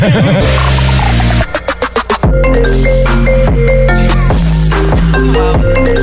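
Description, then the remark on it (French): An iPhone ringtone plays loudly on its own, a bright electronic melody of quick repeated notes with a brief burst of rapid pulsing partway through, filling the whole stretch without any talking. “Qui n'a ah pas déjà entendu cette sonnerie-là d'iPhone?”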